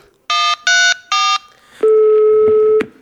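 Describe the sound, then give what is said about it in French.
Three short electronic keypad tones of a phone number being dialed in a bar to call the police, evenly spaced, followed by a long steady ringing tone, with no talking. “Retiens-le pendant que j'appelle la police”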